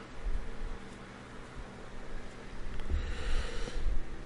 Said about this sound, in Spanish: He puesto muy, muy fuerte el ventilador. No, voy a bajar el ventilador. Ahora sí.